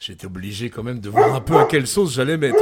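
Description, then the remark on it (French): A dog named Gibbs, who guards the house, barks several times in quick succession in the second half, the barks loud and overlapping a man who keeps talking throughout. “Euh, ça, c'est Gibbs. Alors, ça, c'est Gibbs, c'est le chien qui euh, garde la maison, qui garde le refuge, en tout cas.”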